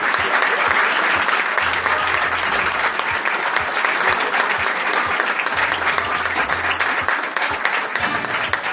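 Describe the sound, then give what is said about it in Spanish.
Loud, sustained applause from an audience at the second edition of a festival's awards, for the Best Female Performance award for the film Photoshop, a dense steady wash of many hands clapping that holds at full strength for the whole stretch without fading. “Fuerte el aplauso.”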